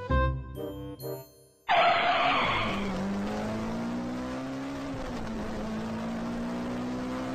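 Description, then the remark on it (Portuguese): A brief tonal passage gives way to a sudden loud burst as a car takes off, tires squealing hard while the engine roars and holds a steady, rising drone. “Quando notou, já estava sentado no banco de trás e o motorista cantou o pneu.”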